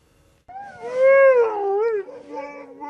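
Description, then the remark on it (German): Sled dogs howl loudly just before a run at a sled dog meet, several long rising and falling voices overlapping in a wavering chorus that starts abruptly and carries on without pause. No one speaks. “Die Hunde spüren, gleich geht's los.”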